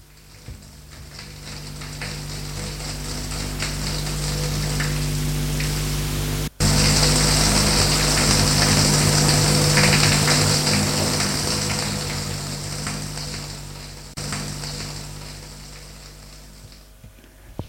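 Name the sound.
shower running water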